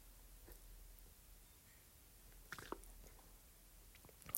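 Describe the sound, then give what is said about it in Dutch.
Someone takes a quiet sip of water, with a few soft wet mouth and swallowing sounds midway through an otherwise near-silent stretch, ending in a small knock. “Ik neem twee secondjes een slok water, want het is mijn tweede podcastaflevering vandaag dat ik opneem.”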